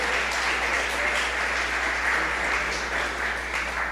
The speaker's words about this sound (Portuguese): Então, pode aplaudir o Senhor, dar uma glória a Deus aí.